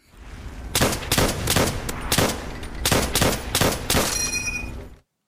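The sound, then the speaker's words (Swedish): An M1 Garand rifle fires about eight loud shots in quick, slightly uneven succession, each a sharp crack, ending with a brief bright metallic ring. No one speaks. “Och majoriteten av de som skickade in hade svarat rätt på det, alltså Emmet Garand.”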